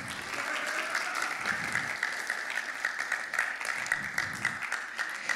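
Sustained applause from an audience clapping for mothers, a dense crackle of many hands clapping steadily at moderate loudness for several seconds with no talking over it.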